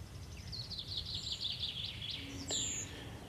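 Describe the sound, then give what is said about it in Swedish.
Birds chirp and twitter continuously outdoors in sunshine beside the slow-flowing Snappertuna river, in quick, high repeated notes, over a low rumbling background with a brief sharp tick near the end. “Solen skiner och fåglarna kvittrar och föreningens kaffekokare puttrar.”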